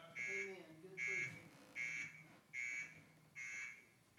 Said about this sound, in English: I set that on purpose. What is that? It's an alarm. What's that supposed to do? It's supposed to wake you up. That's right. Come on. I want to tell you, the longer that thing goes off, and nobody hits it, it becomes a little bit alarming